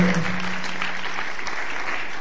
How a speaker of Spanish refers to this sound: Contigo ya he vivido cinco, ya me he llenado y eso creo que merece ese aplauso.